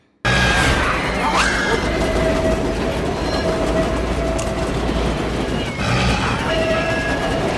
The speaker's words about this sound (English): Now, Rita can't hear anything because she's outside painting and there's a train coming by, drowning out all the screaming.